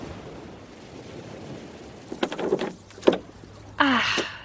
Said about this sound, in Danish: Nu er den trillet helt ud til vandet. Og nu tager bølgerne den med sig. Kom, lad os følge med i den her båd. Ej, nogle store bølger.